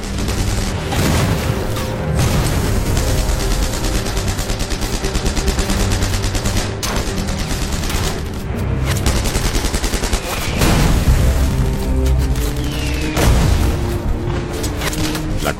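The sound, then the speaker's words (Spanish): Heavy small-arms gunfire from German defenders crackles nonstop in dense, overlapping bursts, loud, with rapid rifle and machine-gun shots layered over low booms and no voices, as Canadian troops charge a barricade at the end of the road leading to Valkeren island. “A pesar del ataque inicial, los canadienses se siguen enfrentando a los intensos disparos que están realizando los defensores alemanes con armas pequeñas.”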